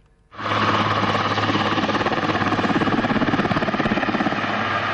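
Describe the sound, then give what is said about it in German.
A Swiss Army helicopter roars, its rotor thudding in a rapid, steady rhythm over a broad engine whine, starting abruptly and staying loud throughout with no voices. Trainee army pilots are flying low-level and navigation training flights at 50 to 100 metres in eastern Switzerland. “Der Lärm kommt von Helikoptern von der Schweizer Armee.”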